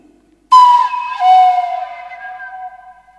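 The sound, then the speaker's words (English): A breathy Native American flute tone imitates a wolf howl: one sustained note that starts abruptly, dips slightly in pitch partway, then holds steady and slowly fades, played alone. “And you've got the wolf.”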